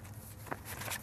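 Soft paper rustling as newspaper pages are turned, with a short crisp flick midway and a longer papery swish near the end, over a quiet low hum.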